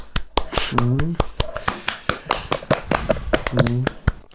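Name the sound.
applause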